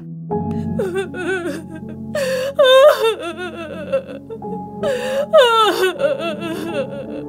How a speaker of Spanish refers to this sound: Uy, ese llanto estaba muy triste.